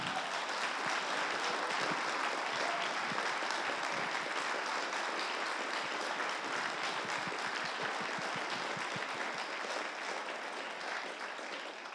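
An audience claps steadily for about twelve seconds, a dense, even wash of many hands that stays loud throughout and eases slightly toward the end, with no voices over it.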